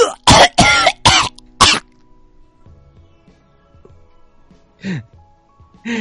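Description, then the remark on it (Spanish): A rapid burst of four or five harsh, loud coughs, followed by quiet shuffling, then one more cough near the end. “Sin embargo, cuando estaba tosiendo, vio pasar delante de él a la mujer más guapa que jamás se había visto en su vida.”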